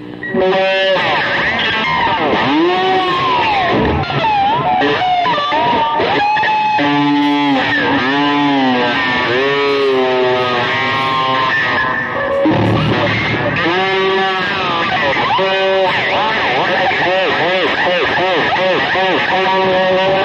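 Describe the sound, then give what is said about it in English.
A distorted electric guitar effect, a trick called the puke trick, with warbling, gurgling pitch bends and retching, heaving swoops that sound like someone vomiting, played continuously and loudly for about twenty seconds. “It almost like, like sounds like somebody puking.”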